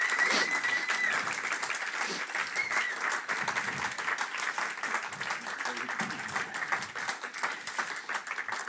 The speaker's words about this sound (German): Und äh, wir möchten ihn als Regelgemeinde mit einem herzlichen Applaus bei uns in unserer holden Hütte hier begrüßen.